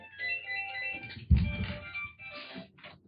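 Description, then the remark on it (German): A phone ringtone plays a bright, melodic electronic tune, interrupted by a thump and rustling as the phone is handled to switch it off. The ringtone resumes briefly before stopping. “Einen Moment, ich muss mein Telefon abschalten.”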